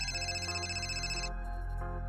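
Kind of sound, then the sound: signal or alarm, cell phone ringing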